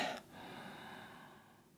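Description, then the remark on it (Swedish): A soft, quiet inhale through the nose during a guided meditation, starting with a short breathy rush and then fading into a faint steady hiss over a low background hum. No one speaks. “Och andas in.”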